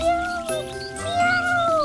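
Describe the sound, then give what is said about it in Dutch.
A cat meows pitifully from far in the distance, high up in a tall tree, a long, wavering, drawn-out cry that rises and falls in pitch, heard on its own with no one talking. “Ergens in de verte horen ze een poes heel zielig miauwen.”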